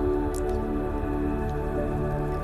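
Gently babbling water of a stream beside a path among massive trees flows steadily and softly, a continuous trickle with faint droplet-like splashes and no voices.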